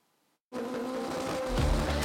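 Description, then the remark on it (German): Loud tuned car engines roar at the Lausitzring race track during a tuned car show, starting abruptly after a brief silence with a steady droning rev, then growing heavier with a deep rumbling boost near the end. “Der Lausitzring an der akustischen Belastungsgrenze. An diesen Tagen ist hier alles noch schneller, lauter und extremer.”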